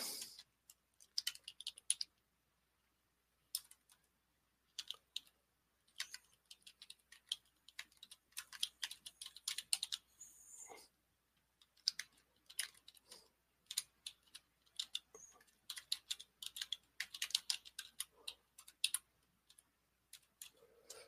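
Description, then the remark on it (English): Rapid, irregular clicking of fingers typing on a computer keyboard, with short pauses between bursts of keystrokes. The taps are crisp, with no talking. “So, yeah, so I was just typing something here.”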